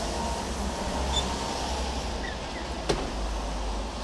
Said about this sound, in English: Oh, the door's opening. Right. Shut door.